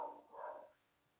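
A dog barks twice in quick succession, faint, followed by quiet background hiss.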